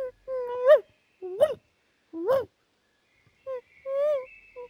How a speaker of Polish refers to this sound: W oddali ciche piesków skomlenie.